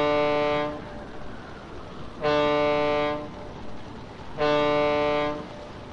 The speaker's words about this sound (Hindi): उसकी आंखें बंद थी और होठों पर पे दुआ था कि अचानक भोंपू की एक खौफनाक आवाज़ ने उसका इनहमाक तोड़ दिया